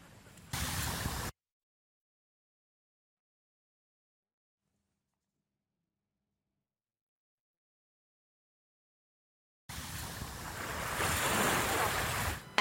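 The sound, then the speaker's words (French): Mediterranean sea surf rushes and hisses onto a beach at Ajaccio, Corsica, a brief burst at the start, then a long silence before the waves return and swell louder, with some wind buffeting the microphone. “Depuis la mi-juin, sur nombre de plages corses et azuréennes, ces méduses, les Pelagia noctiluca, sont ballottées par dizaines par le ressac de la mer.”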